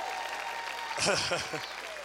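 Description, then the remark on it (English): An audience claps steadily for a woman throughout, a dense wash of applause at moderate volume, with a voice briefly calling out over it midway. “Give her a round of applause.”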